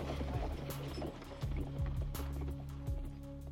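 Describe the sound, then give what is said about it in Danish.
An arriving knight's horse gallops quickly across a castle square, hooves striking hard ground in a steady, loud rhythm of sharp clattering impacts, with a low rumbling hum running underneath. “Lyden af hurtige hestehår over slotspladsen.”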